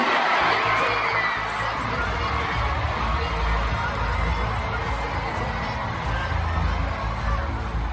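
A large crowd at Friends Arena in Sweden on 7 March 2020 roars and cheers steadily throughout, a dense wash of voices with heavy low rumble and bright high shouting, loud and sustained with no pauses.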